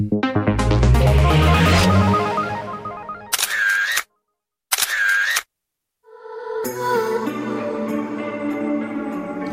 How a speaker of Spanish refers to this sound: escuchado un clic de una cámara